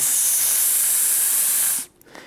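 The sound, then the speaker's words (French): A voice holds a long, steady hissing 's' for nearly two seconds, bright and airy, then cuts off abruptly into near silence. No words are spoken. “un bruit qui, vous voyez, il n'y a pas d'harmonique, c'est juste une grosse tache d'énergie, souvent dans les aigus.”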